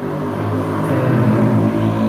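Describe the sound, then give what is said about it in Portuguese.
A loud car passes behind a speaker in São Paulo, its engine droning steadily outside, a rumbling motor sound that holds strong throughout and rises slightly in pitch at the end. “Nesse momento passa um, …, um carro bem alto atrás do ….”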